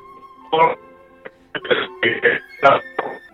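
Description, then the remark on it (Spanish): A garbled voice on a live phone call from the Conservatorio Superior de Música de Madrid, Spain, keeps cutting in and out over a bad line, arriving in short choppy bursts separated by abrupt gaps, with a faint steady tone humming underneath. “qué pena que se está cortando. Prácticamente no te escucho nada”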